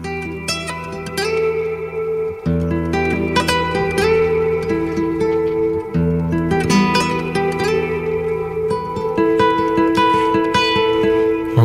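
An electric guitar plays through an echo effect, its notes repeating and blurring into a dense, sustained wash, with plucked attacks growing busier toward the end. No one speaks.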